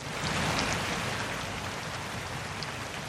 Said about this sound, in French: 5 novembre, Grès se réveille sous la pluie.